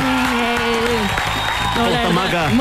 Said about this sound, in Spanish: Un aplauso, por favor